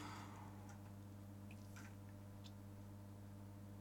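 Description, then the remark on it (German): A few soft, scattered keyboard clicks tap out irregularly over a steady low electrical hum, quiet, with no one speaking. “Deine Tastatur klingt so schön.”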